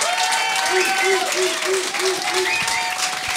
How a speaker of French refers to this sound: Merci d'applaudir, mais ça, ça veut juste dire que ma carrière finit jeudi c'est.